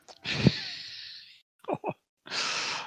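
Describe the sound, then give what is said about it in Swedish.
A voice imitates someone gasping for breath as their airways swell: a long, airy, strained inhale, then two short catching breaths and another hissing gasp, fairly loud with no words spoken. “Du, du är någon så här, du sitter där och kippar efter andan.”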